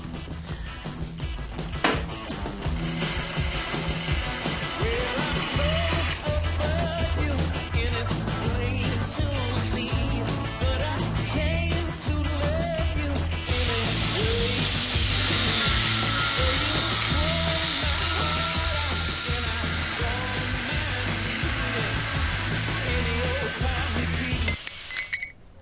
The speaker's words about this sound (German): Als nächstes brauchen wir noch die Bohrung.